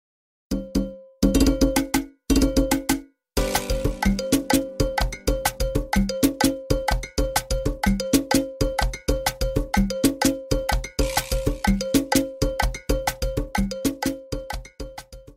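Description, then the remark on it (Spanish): A Peruvian cajón box drum is played in a fast, driving rhythm of dense, punchy hits, with a bright ringing bell-like accent running through it. Purely instrumental and fairly loud, with brief pauses near the start. “Y seguro ya lo descubrieron. Y sí, es el popular cajón peruano”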